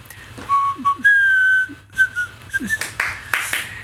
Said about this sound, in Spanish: Entonces, ya no podemos poner las mañanitas, pero sí podemos este, chiflarlas tal vez.